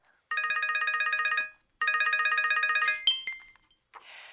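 telephone call ringing tone

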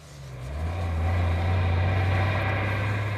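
bus engine running

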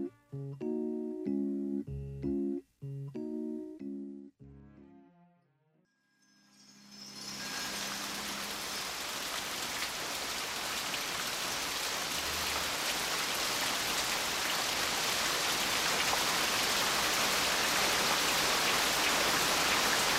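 rain falling

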